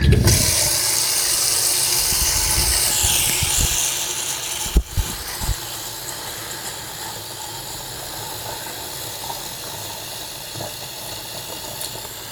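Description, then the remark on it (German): A steady rushing hiss of a large amount of water pouring into a mop bucket, with a rising gurgling sweep early on and a few knocks midway, continuing evenly without any talking. “Dann werde ich jetzt mal dann werde ich jetzt mal Wasser in diesen Wischeimer geben und zwar eine ganze Menge.”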